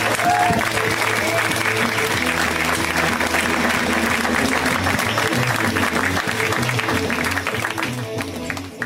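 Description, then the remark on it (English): A crowd claps steadily for several seconds, dense, sustained applause tapering off slightly at the end, with faint cheering mixed in, as a stand-up comedy audience welcomes comedian Beth Stelling to the stage. “Give it up for Beth.”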